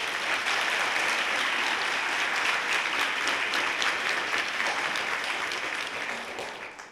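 Sustained applause from an audience welcoming a speaker, a dense steady patter of many hands clapping, holding strong before fading out in the final second.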